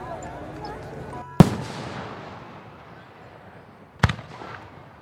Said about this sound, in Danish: For det er ham, der har hjulpet med at lave fyrværkeri. Men de er allerede kommet til at starte det